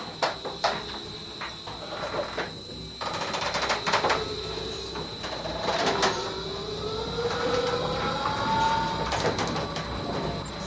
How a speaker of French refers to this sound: Et attention, c'est parti. Vous allez entendre, ça va s'accélérer, ça va faire pas mal de bruit. Et les machines vont se mettre en route pour avoir une vitesse après de, de croisière pour le moulin.